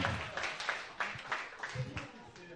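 A crowd breaks into applause, a steady wash of overlapping hand claps with some sharper individual claps standing out, holding at a moderate level for a couple of seconds.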